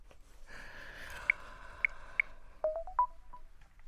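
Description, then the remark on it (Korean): A phone number is dialed to call a shaman: a quick series of short electronic keypad tones, several spaced beeps followed by a rapid cluster, clear over a faint background hum, with no talking. “전화 한번 해볼까?”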